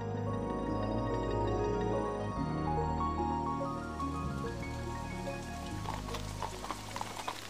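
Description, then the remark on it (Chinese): Steady music plays at first, then rain begins to fall partway through, a rising hiss of patter and scattered drops spreading over the tune until the end. “天怎么突然下雨了？”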